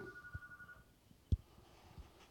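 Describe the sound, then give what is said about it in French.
A telephone rings faintly, a steady electronic tone lasting under a second, followed by a soft knock or thump amid quiet; the call announces that the next interview guest is arriving. “Voilà, donc c'était un téléphone pour dire que le suivant arrivait juste avant qu'il arrive.”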